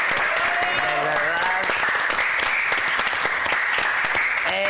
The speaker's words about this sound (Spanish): Yo quiero pedir un aplauso para este hombre.